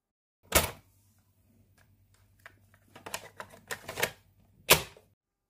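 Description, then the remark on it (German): A disc or tape, Track 1, being loaded into a player: a sharp mechanical clack, a steady low motor hum, then a cluster of small clicks and a final firm clunk, with no voices. “Wir machen Bauen mit Tracks und Track 1 lege ich gerade ein und Track 1 ist Rap.”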